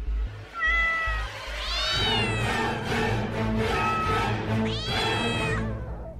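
A cat meows loudly, letting out a long, drawn-out wavering meow followed a few seconds later by a second, shorter cry, with no talking.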